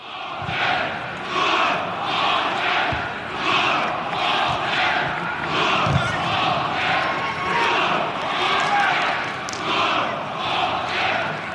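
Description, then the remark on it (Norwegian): A large stadium crowd at a football match, 60 minutes in, chants a planned call-and-response with Stabæk supporters, one side shouting 'hater' and the Stabæk supporters answering; loud shouted bursts alternate steadily about every second, with a dense roar of many voices throughout. “Um, og så, når det er spilt 60 minutter, da reiser banen seg opp og gjennomfører et planlagt kanonrop med Stabæk-support, der banen roper 'hater' og Stabæk-support roper var.”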